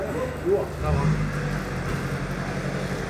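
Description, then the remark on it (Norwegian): A car engine rumbles low and steady as the vehicle creeps slowly forward while barrier tape is lifted over the car and its antenna so it can get through, with a brief murmur of voices in the background. “Driver nå og fjerner noen sperrebånd over bilen så bilen kommer fram.”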